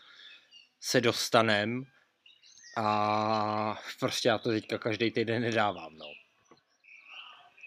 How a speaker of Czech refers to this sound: Jo, ale mimochodem, uh, máme vlastně jarní, jarní díl, uh, což znamená, že v pozadí můžete slyšet štěkající psy a cvrdlikající ptáčky, protože nejsme zalezli žádný kopce.